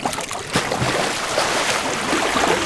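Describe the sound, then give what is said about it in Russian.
Steady sloshing and splashing of water as people wade through shallow water with weak surf, with a broad rushing wash and a few sharper splashes. No voices. “Пошли. Тут не глубоко, прибой не сильный.”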